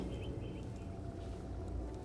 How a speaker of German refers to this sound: Ich liebe dieses Geräusch. Der Wind, der durch die ganzen Bäume weht. Ich glaube, das ist der beste Klang auf der ganzen Welt.